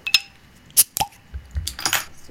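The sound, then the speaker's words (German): A 0.75-litre beer bottle being opened: a few metallic clinks and taps, a sharp pop of the cap, then brief bursts of fizzy hiss, with no talking. “Also auf jeden Fall schon mal eine tolle Flasche, 0,75”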